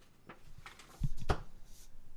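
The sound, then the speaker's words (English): A single exaggerated comedic gulp, a fairly loud throaty swallow with a sharp click at its peak, against a quiet background. “That was a comedy gulp”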